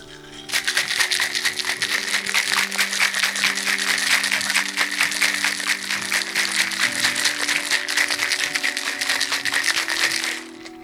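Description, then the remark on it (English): A cocktail shaker full of ice, juice and simple syrup is shaken hard for about ten seconds, a dense, steady rattle of clattering ice that stops abruptly, with a faint low hum underneath. “Time to shake. Get the lid on.”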